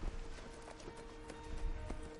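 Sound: horse hooves approaching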